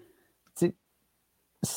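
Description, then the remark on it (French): A single quick sneeze, a short, sharp, breathy burst, followed by a second of silence before a voice starts speaking. “à tes souhaits.”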